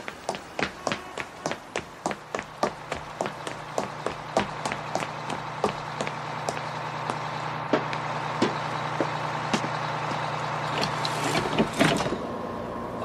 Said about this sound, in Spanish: Mire, ve aquel autobús con el motor en marcha. Sí. Ese es su autobús. Rápido, corra y alcáncelo porque está a punto de partir.